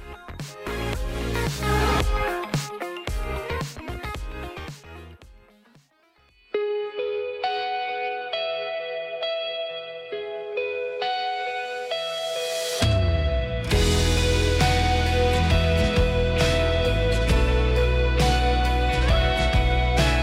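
A K-pop idol's pop song plays on a radio programme: punchy drum-driven opening, a softer sustained stretch, then a full, loud band section. The music is heavily produced with effects, and no one talks over it.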